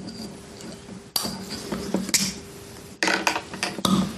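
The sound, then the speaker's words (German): Small glass San Miguel beer bottles from a minibar clink and knock together several times, with a few sharp onsets as the caps are pried off, fairly loud, amid light handling noise and no talking. “Dann lass mal aufmachen. San Miguel.”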